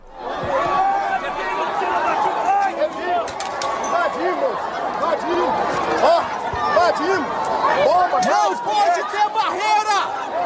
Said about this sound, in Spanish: Este es el sonido de la protesta recogido por los propios manifestantes que grabaron vídeos y los publicaron en redes sociales.